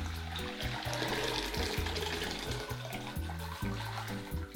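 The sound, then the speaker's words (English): Bean cooking liquid and beans are poured steadily into a colander set over a bowl, a continuous splashing, gurgling rush of liquid that stays fairly loud for several seconds with no talking. “And we're just gonna pour the liquid and the bean right into”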